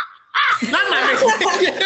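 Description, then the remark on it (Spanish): A voice mimics a crow with a loud, raspy, cawing cackle that runs continuously for about a second and a half, sounding partly like laughter. “No un cuervo, bueno.”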